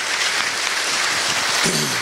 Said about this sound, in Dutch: Applaus. Applaus. There you go. Applaus.